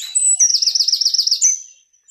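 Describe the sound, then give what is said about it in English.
A bird sings a quick, high trilling phrase of about a dozen rapid warbled notes, clear, ending abruptly with no voices present. “bird song. What a great animal the bird is.”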